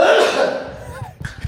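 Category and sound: human body sound, sneeze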